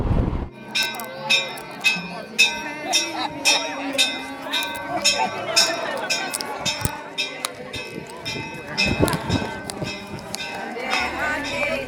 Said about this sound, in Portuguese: Cinco da tarde, os fiéis se movimentam fervorosamente. As badaladas do sino da igreja e as preces adormecidas por um ano agora são faladas.